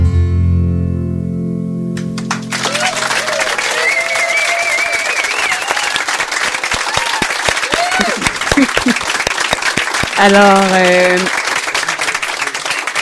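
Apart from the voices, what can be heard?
added applause sound effect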